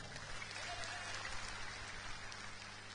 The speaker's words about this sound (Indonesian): Dari Batam Pak. Batam, tepuk tangan buat Batam.